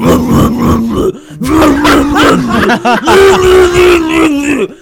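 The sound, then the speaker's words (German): A voice imitates death metal growling, producing a few loud, guttural, sustained roars with brief pauses between them, with no instruments. “Pass auf, wenn ich Death Metal Band höre, dann höre ich eh nur.”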